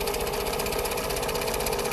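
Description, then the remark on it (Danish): A sewing machine named Elda runs steadily, sewing face masks from Fanø cloths, its needle hammering in a fast, even rhythm over a constant mechanical whir, with no voices. “Symaskinen Elda er kommet på overarbejde.”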